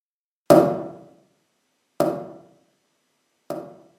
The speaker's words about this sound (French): Pour commencer simplement, écoutons ce son de percussion qui va être répété deux fois à intervalle d'une seconde et demie,